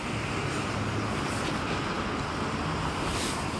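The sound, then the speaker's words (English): Steady, loud roar of road traffic at a bus stop, a dense rumble of engines and tyres with no pauses, as a large vehicle, a bus, seems to pass by. “Okay, that's not my bus.”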